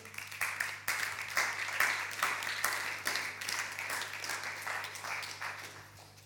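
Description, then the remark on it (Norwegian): Warm audience applause fills the moment, a steady, dense patter of many hands clapping at a fairly even loudness for several seconds, with no voices on top, over a low constant hum. “Så med de ordene sagt så skal dere få lov til å gi en varm applaus og klapp til”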